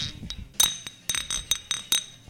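Glass bottles clink together in a toast several times in quick, uneven succession, bright ringing taps with short resonant tails, no voices present.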